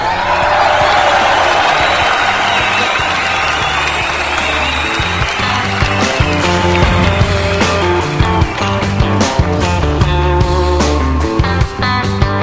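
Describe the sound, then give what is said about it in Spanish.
An audience on the show Generación X applauds loudly and steadily in homage to Pedro Infante, a dense wash of clapping that carries on as band music with a steady beat comes in and takes over. “Fuerte el aplauso, público conocedor.”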